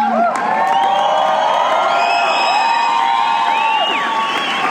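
A loud crowd cheers and whoops steadily for several seconds, high shrill voices and shouts rising above a dense wash of applause and excited noise.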